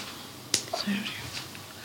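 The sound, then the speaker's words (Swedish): A single sharp slap on a cheek, demonstrating a father's slap, cracks out once, loud, followed by a quiet stretch with faint low murmuring in the background. “Han gav dig, han gav dig en örfil? Så här bara. Ja, på kinden.”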